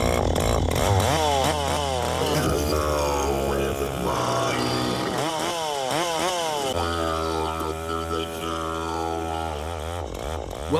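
A chainsaw engine roars for about eleven seconds, its pitch repeatedly revving higher and dropping back in loud, rasping surges, with no one speaking.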